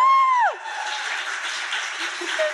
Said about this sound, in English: Bet you didn't think you'd get a round of applause for that one.